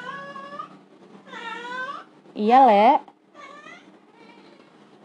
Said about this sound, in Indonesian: Ini nyaut tuh kucing gue belakang dirasa diomongin jadi nyaut.